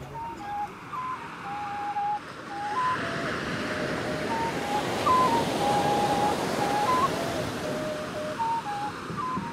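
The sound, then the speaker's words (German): Rough surf crashes steadily onto a beach with palms and white sand, the sacred access to the sea of the Aruaco people, a broad continuous roar that swells and recedes, with faint high tonal whistles drifting over the wash of the waves. “Für mich ist es ein x-beliebiger Strand mit Palmen, weißem Sand und einem ungestümen Wellengang.”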